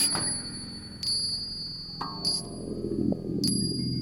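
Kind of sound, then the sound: sound effect, church bells ringing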